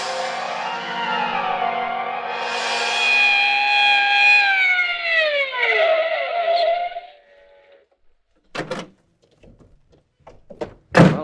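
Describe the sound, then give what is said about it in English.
A police squad car siren wails on a steady high note, then slides downward in pitch and dies away as it arrives at a house at 3344 Burton Street, followed by a few sharp thuds like car doors shutting. “Get out a squad car, quick.”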